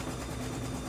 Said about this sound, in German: Also ihr hört ja alle im Hintergrund das Rattern der Nähmaschine.